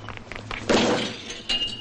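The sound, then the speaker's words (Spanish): A shopping cart pushed by a small boy in a parking lot slams into a car with a loud, clattering metallic crash that rings out and fades, followed by a second sharper knock a moment later. “Lo estrelló contra el coche.”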